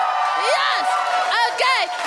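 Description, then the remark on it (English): A comedy show audience cheers and whoops loudly for comedian Ola Labib, with several rising high-pitched whoops and shouts standing out over a steady roar of voices that continues throughout. “and keep your applause going. Whoop, cheer, make weird sounds for the phenomenal Ola Labib.”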